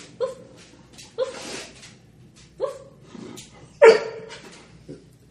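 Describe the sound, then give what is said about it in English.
A dog lets out a handful of short, sad whimpering barks, about five strained yelps spaced unevenly, moderately loud, with quiet pauses in between. “One sad whimpering bark.”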